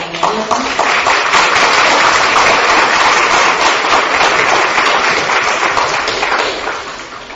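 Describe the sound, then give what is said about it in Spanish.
A crowd applauds the director at a university event, many hands clapping in a dense, even patter that holds strong for several seconds before gently tapering off at the end. “Bueno, un aplauso entonces para el director del”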